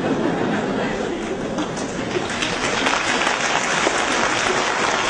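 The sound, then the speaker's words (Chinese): A crowd applauds steadily, a dense wash of many hands clapping at an even loudness for about five seconds, with faint murmuring voices mixed in. “鼓掌的都是有心心血同感啊。”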